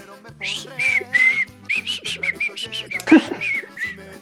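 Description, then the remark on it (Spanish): A catchy pop melody from a viral TikTok song, whistled in short bouncy phrases with clear pitch jumps and a steady rhythm, no talking over it. “como se le pasa grabando TikToks, estoy escuchando todo el día el”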